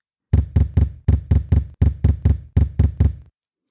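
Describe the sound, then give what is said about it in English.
Heavy, dull thumps on the kitchen and bedroom windows at 2 a.m., two synchronized thumpings, twelve in all, falling in steady groups of three with brief pauses between. The knocking is loud and even, with nothing else heard. “While the thumping continued on the kitchen window, a second thump began on the bedroom window. Two synchronized thumps.”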